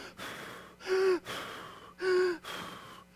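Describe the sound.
A person mimics exhausted heavy breathing: a rhythmic run of about five breaths in and out, with two louder, wheezy gasping inhales standing out.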